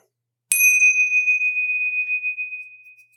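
A single clear bell ding from an iPhone, marking the last bell, strikes once and rings out, its bright tone slowly fading over a few seconds with no voices around it.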